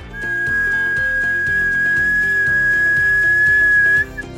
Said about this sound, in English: The whistle is a warning. Do you know how the tea kettle works? It's simple. You fill up the kettle, leaving some room at the top, of course. There is a small pour spout on top with a hinged lid.